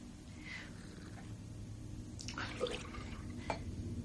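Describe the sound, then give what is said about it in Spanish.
Someone in a bathroom drinks from a glass of water to swallow a pill: soft liquid sloshing and a couple of light glassy knocks in the second half, over a low steady background hum. “Deposita una píldora en su mano y se la traga con un vaso de agua.”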